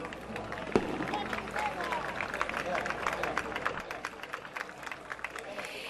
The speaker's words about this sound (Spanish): Eh, para continuar, vamos a dar la bienvenida con un fuerte aplauso para animarlos.